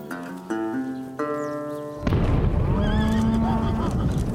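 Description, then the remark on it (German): A horse whinnies in shrill, wavering calls as it nearly throws its rider, over a loud, dense rumble of trampling hooves and commotion as cowboys on a West Texas ranch try to calm their horses and the cattle scatter, preceded by a few sustained, stepped tonal cries. “Ein Pferd wirft seinen Reiter fast ab. Die Cowboys versuchen, ihre Tiere zu beruhigen.”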